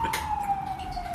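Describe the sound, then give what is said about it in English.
A police car siren wails in the background, holding a steady tone that slowly glides downward over low traffic rumble, with no one speaking. “I apologise for that police siren in the background.”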